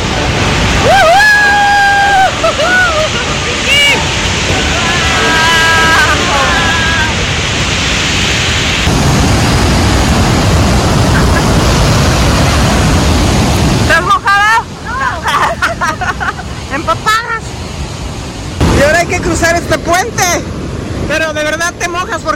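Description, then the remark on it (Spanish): A loud, steady roar of heavy falling water and spray from a waterfall while it is raining, strongest in the first half and easing later, with people talking and calling out over it. “Empezamos a mojar porque aquí cae mucha agua.”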